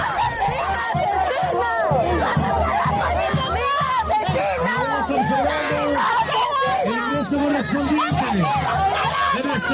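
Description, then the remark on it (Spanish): A dense crowd shouts and jeers continuously at the female president of Peru, calling her a murderer. Many raised voices overlap into a loud, steady din with no single speaker standing out. “Ok, le gritan asesina, le gritan ese, eh, creo que se llama Yacucho, corríjame ahí, el área donde se fue a presentar la presidenta”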